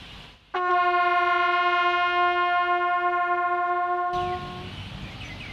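A bugle sounds one long, steady sol note, loud, held for about four seconds before cutting off, with no voices alongside; it is blown as a pitch exercise while reviewing a lesson.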